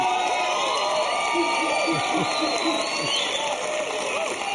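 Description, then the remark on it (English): A studio audience claps and cheers steadily for a man for the whole stretch, a dense, loud wash of applause with scattered whoops and shouts rising above it. No single voice stands out. “Let's give this man a hand for his courage.”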